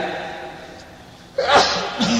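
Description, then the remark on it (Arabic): After a quiet stretch of background noise, one sudden, forceful sneeze bursts out during an Arabic grammar lesson, trailing into a short breathy exhale and a faint follow-up sound. “يرحمك الله”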